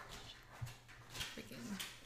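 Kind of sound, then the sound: animal, dog whimpering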